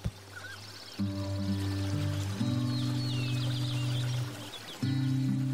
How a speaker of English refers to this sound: Allow your thoughts to float as the birds chirp.